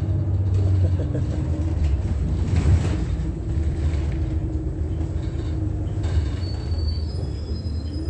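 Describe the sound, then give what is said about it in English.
A steady, loud low engine rumble fills the inside of a moving Route 83 city bus on a detour at 7:35 a.m., with a constant droning hum, road noise and faint rattles throughout, and no voices. “Is this not Route 83, bus driver?”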